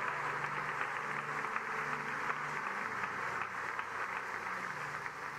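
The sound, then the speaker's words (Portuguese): A church audience applauds the Lord steadily throughout, a dense wash of many hands clapping, sustained and even without letup. “Quantos podem aplaudir ao Senhor e dar glória a Deus aqui neste lugar?”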